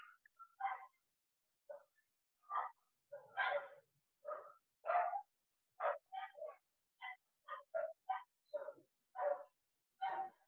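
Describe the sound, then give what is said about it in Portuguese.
Dogs fighting bark in a rapid, uneven series of sharp yaps and yips, some overlapping as if more than one dog, moderately loud, with brief gaps and no talking. “Os cachorros estão se batendo.”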